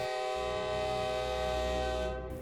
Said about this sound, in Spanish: Se escucha a la distancia la señal de que se acerca un tren a escasos metros.